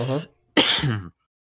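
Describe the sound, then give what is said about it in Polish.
A loud burst of coughing and throat clearing: a short voiced rasp, a pause, then a sharp harsh cough trailing into a gravelly clearing of the throat. “Czekaj, bo mi jakiś kaszel weźmie.”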